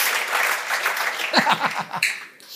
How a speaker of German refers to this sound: Du hast deinen Applaus schon gekriegt.